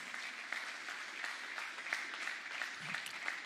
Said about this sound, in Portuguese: Então dá glória a Deus aí no teu lugar, aleluia. Amém? Aplauda o Senhor, em nome de Jesus.